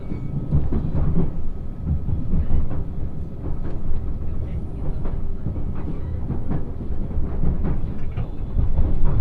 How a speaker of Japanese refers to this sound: 上り特急列車通過待ちのため停車いたします